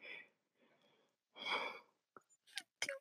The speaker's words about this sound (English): Sorry about that. Uh, I'm yawning a lot. Good heavens.